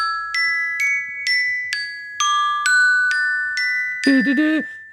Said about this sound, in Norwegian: Ok, men Alarmlyden min, i hvert fall på iPhone, Ja. den heter Glimt.